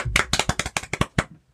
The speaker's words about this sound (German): Geiler Boy, dafür Applaus.